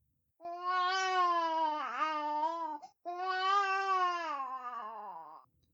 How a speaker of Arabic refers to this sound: حملت الأم المولود الصغير بين يديها وصارت تغني له غير انه ظل يبكي ودموعه تنهمر بغزاره